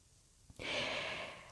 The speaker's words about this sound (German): und dann mit mit der Nase riechend einatmen. Riechend einatmen bewirkt die Weitung von Leib und Brust. Diese Weitung von Leib und Brust passiert gleichzeitig. Ganz wichtig.